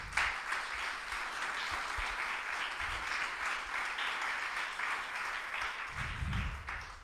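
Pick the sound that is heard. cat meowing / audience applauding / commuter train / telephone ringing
audience applauding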